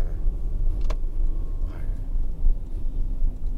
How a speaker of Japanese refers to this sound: 自分もそうなんですもういろんなことにうわっとやって今もこうね運転してるんだから運転しててこうふと思えばハンドルに手触れてるこのハンドルの感触